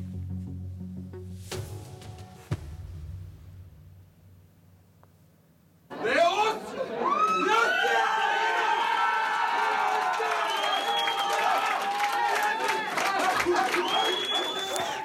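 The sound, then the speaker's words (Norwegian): A group of men in suits at restaurant Fangen in Trondheim erupts into loud, sustained cheering and shouting, hugging each other, after a few quiet seconds of low murmur, excited voices overlapping with whoops and rising calls, as the restaurant receives one Michelin star at the Michelin Guide ceremony in Aarhus, Denmark. “Slik hørtes det ut da en gjeng eh, dresskledde menn jublet og klemte hverandre på restaurant Fangen i Trondheim i går kveld.”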